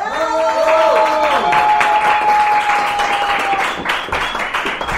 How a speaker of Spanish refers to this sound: Este, bueno, vamos a darle un fuerte aplauso a Carla Sofía Gascón.